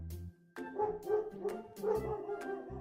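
A dog called Xiao Hei at a school barks fiercely in a rapid, almost unbroken string of loud, harsh barks after a brief pause, with growly low tones running between them. No one speaks.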